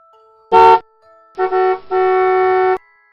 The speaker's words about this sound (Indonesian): Bunyi klakson yang berada di belakang mobil Audi. Audi pun terkejut mendengarnya.